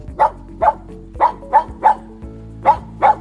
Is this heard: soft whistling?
no